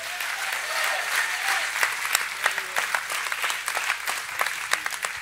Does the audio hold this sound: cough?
no